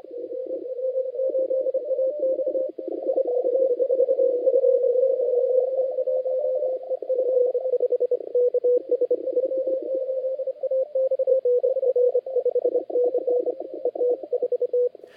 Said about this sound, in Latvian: Šajā sacensībās, protams, amatieru radiovīņu diapazoni nepārspīlējot vārās. Izklausās tas apmēram šādi.